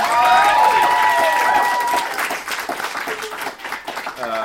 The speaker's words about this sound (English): Uh, can we get a big round of applause for the Free Library of Philadelphia?